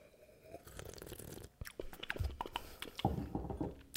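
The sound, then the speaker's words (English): Wet mouth sounds of someone chewing and swishing a sip of whiskey to aerate it, with irregular smacks, slurps and small clicks over a few seconds and no talking. “Chewing on it. Continue to aerate.”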